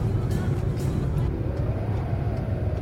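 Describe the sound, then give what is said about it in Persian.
A car engine rumbles steadily, a low, continuous drone that shifts slightly in pitch as the vehicle slows and settles to a stop in front of a juice shop. “دم یه آب میوه فروشی وایساد”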